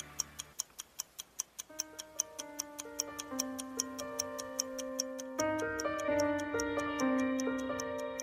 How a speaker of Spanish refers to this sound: Ya suena el reloj, ya empieza a contar el tiempo.